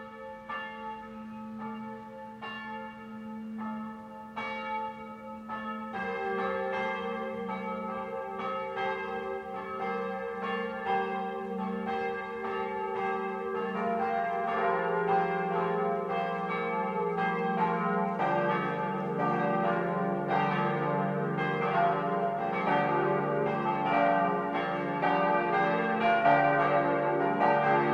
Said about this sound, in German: Es ist 12 Uhr. Das Mittagsläuten kommt heute von der evangelisch-lutherischen St. Veitskirche im schwäbischen Leibheim.